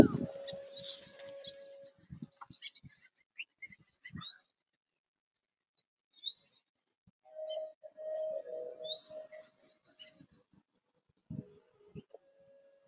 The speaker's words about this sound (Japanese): あ、鳥の声癒されます。